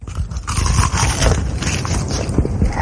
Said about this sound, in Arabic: وأحلى من هذا وهذاك قرمشة تشيكن فيليه من هيرثي